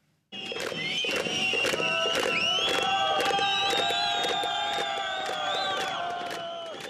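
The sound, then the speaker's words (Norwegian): A crowd of protesting miners on Khreshchatyk street in Kyiv, Ukraine, beats helmets against the ground in a steady, rapid rhythm of loud sharp clacks while many voices shout 'shame, shame' together, sustained and loud throughout. “Gruvearbeidere som slår sine hjelmer i bakken mens de roper 'skam, skam'”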